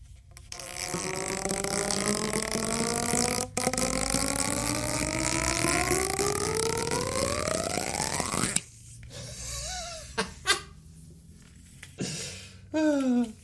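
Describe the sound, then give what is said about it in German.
A two-part tube is pulled apart with a loud, sustained hollow drone that climbs steadily in pitch for about eight seconds, then cuts off, leaving a few short squeaks and pops. “wollte euch mal eben das coolste Geräusch auf dem Planeten vorspielen oder vormachen oder jedenfalls euch daran teilhaben lassen, wie es klingt, wenn man diese Röhre hier oben, diese zwei Teile auseinander nimmt.”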